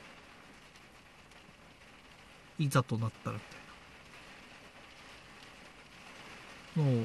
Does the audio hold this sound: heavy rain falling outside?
yes